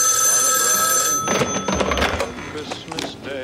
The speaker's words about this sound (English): So the phone rings, and it's Frank on the other line.